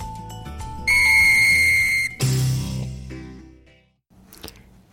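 A bright, loud whistled note rings out over a musical backing for about a second, then gives way to a fading swirl of instruments and a brief final accent.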